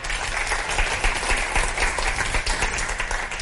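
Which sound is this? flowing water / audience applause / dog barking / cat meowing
audience applause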